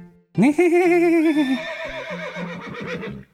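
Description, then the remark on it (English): A person imitates a horse's neigh: one loud, wavering high whinny that rises sharply, trembles, then breaks into a shaky, fluttering descent lasting about three seconds, with no talking. “I like to neigh like a horse.”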